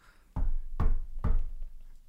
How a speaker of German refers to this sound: Warte, ich klopfe.